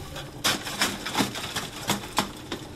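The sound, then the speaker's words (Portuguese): Chunks of charcoal from Val de Cavalo clatter into a grill at a churrasqueira in Cabeça de Vidro, Porto Alegre council, in a series of sharp, dry knocks, about half a dozen louder hits at an uneven pace over a faint rustle, with no voices. “Na churrasqueira, em Cabeça de vidro Conselho de Porto Alegre, Francisco Rolo enche o grelhador”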